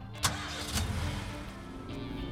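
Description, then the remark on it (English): A car engine cranks and catches, then settles into a steady low rumble as the vehicle pulls away and keeps driving, fairly loud, with no one speaking. “As you drive, giant blue arrows hang in the sky overhead, guiding you to your pre reserved parking spot.”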